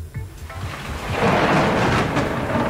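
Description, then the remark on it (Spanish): A thunderstorm: deep rolling thunder rumbles low and heavy while steady rain hisses across the whole span, swelling louder after the first second and staying dense to the end. No one speaks. “Es que viene Bauden y viene una nube negra alrededor de él. Por favor, escuchen.”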